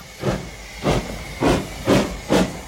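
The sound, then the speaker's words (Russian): A steam locomotive chuffing slowly as a long train pulls away from a small halt on the Trans-Siberian Railway, with rhythmic bursts of hissing steam about every half second, fairly loud. “Конвоиры выбросили из вагонов несколько истощенных людей, мужчин и женщин. И поезд тронулся.”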